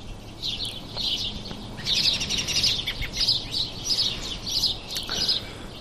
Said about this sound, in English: It is 5:30 in the morning. about 25 minutes before sunrise. On May 1st. And I am just sitting in my backyard with a coffee listening to the birds.